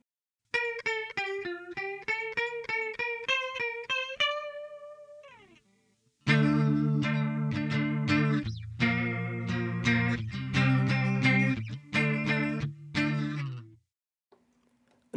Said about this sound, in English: So it's essentially two pedals in one, chorus and vibrato. If you're interested in it, it's got a really unique sound. I absolutely love it. So let's take a listen to the Walrus Audio Julia, see if it's right for you.